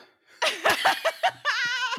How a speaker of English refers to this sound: he makes all the goats in the yard go bah.